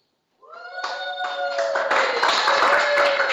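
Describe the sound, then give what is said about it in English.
A small crowd at Shay's Restaurant in Winnsboro, at a live KMAR radio broadcast with Franklin Parish Patriot football players, bursts into cheering and whooping, high-pitched voices rising together over steady clapping that builds and stays loud for about three seconds. “along with a few of uh, Franklin Parish's finest Franklin Parish Patriot football players join us, and we got a little crowd here. Make some noise.”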